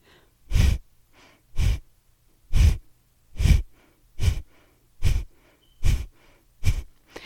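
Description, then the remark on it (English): Eight sharp, forceful bursts of breath pushed out through the nose in a steady rhythm during kapalbhati breathing, each followed by a faint, quiet passive inhale as the belly refills. Breathy and hissing, with no talking. “So if you can kind of hear that, really, you can hear the forceful exhale through the nose and just that passive inhale where the belly is filling back up for air, getting prepared for that next exhale.”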